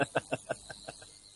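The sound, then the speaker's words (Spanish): A faulty microphone emits a rapid series of about seven evenly spaced, cricket-like chirps that start loud and fade steadily, with no voices present. “cambia el micrófono. Intenta utilizar otro, que es que, es que suena, como, suena como si un grillo se hubiese emitido dentro de ti.”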